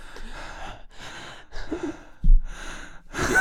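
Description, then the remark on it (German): Loud breaths from two people huffed at the same time straight into a microphone, several heavy inhales and exhales in a row, with a sharper gasp-like puff near the end and no talking. “Warte, atmen wir mal beide gleichzeitig sonst Mikro. Bitte. Komm. Warte, ich muss üben. Einfach laut reinschnaufen.”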